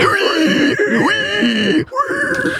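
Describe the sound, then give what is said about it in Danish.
A loud metal-style "pig squeal" vocal: a shrill, strained, gurgling scream imitating a squealing pig, held almost continuously with wavering pitch and one brief break near the end. “Det hedder det jo, fordi at ja. det lyder som en gris, der skriger.”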